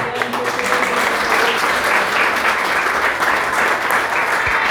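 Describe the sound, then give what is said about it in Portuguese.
An audience applauds the Lord steadily, dense overlapping claps forming a loud, continuous wash of sound that holds an even level throughout without pause. “Aplauda do Senhor.”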